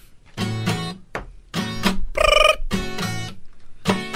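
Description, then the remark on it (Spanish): A telephone rings with a melodic ringtone, a series of short, bright tonal bursts repeating in a steady pattern, loud with no one talking over it. “Suena un teléfono en la suegra telefonista.”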